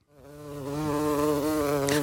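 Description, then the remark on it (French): A hornet buzzes in a steady, deep drone that swells in over the first moment, then holds loud and continuous with a slight wavering pitch until the end. No voices. “Un bourdon. pas loin. Un frelon”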